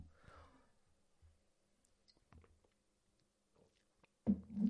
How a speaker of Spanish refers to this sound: Ay, Dios mío, vamos a echar un traguito. De agua, ¿eh? Vamos a ser sanos.